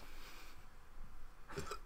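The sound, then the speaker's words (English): A single sharp, fairly loud hiccup pops out near the end, after a stretch of quiet room noise with no talking. “Jesus, dude, you're gonna die from hiccups.”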